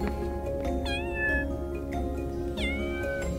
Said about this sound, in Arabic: خرج من الصندوق هر أبيض بوبر كثيف ناعم